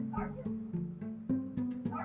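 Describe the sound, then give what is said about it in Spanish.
Dogs bark in a quick, uneven series of sharp yaps, about half a dozen in two seconds, moderately loud, with a whiny tone between barks and no one talking. “¿Qué pedo con mis perros?”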